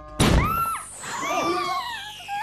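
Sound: bomb explosion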